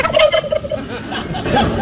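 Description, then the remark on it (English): A turkey gobbles loudly, a rapid warbling, rattling burst of calls that fills the short moment, with a noisy outdoor background underneath. It is one of two turkeys pardoned by President Biden on the White House South Lawn. “President Biden issued an official presidential pardon to two turkeys on the White House South Lawn”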